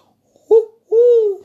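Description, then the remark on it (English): A voice imitates a pigeon's coo: two low, hollow hoots, a short one followed by a longer drawn-out one with a slight wavering rise and fall, fairly loud. “Uh, and the pigeon. Oh, I can't do that with a crackle in my throat.”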